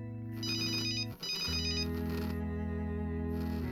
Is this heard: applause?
no